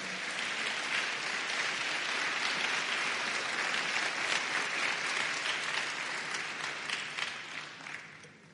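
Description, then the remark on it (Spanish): A church audience claps hands to the Lord in a sustained, dense burst of applause lasting several seconds, loud and steady before tapering slightly at the end, with no talking over it. “Dele palmas al Señor.”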